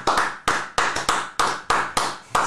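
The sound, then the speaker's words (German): An audience claps in a steady, even beat, each sharp clap ringing out briefly before the next. Loud, with no voices. “euer Beifall bedeutet mir wirklich mehr als tausend Worte.”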